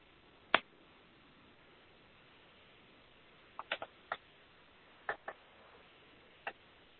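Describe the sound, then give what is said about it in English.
Several sharp finger snaps, about eight, made by people coming back from a guided frequency meditation, popping out of a quiet background at irregular intervals, some in quick pairs or clusters, each crisp and short. “When you feel comfortable, you can open your eyes and snap your fingers.”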